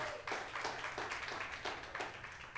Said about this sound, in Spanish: Un aplauso más al Señor esta mañana.